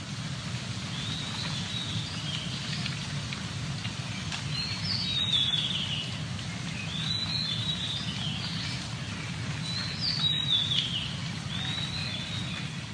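Birdsong recorded from a balcony with non-professional equipment, in short, high chirping phrases that come back every two to three seconds, fairly faint, over a steady low rumble of background noise. No one speaks.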